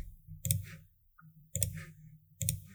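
Three sharp, bright clicks land at roughly one-second intervals, each with a brief rattly tail, over a low, steady hum. No one speaks.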